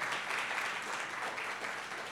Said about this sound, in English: Now you can clap.